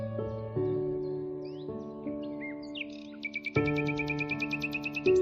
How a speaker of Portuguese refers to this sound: O som dos pássaros.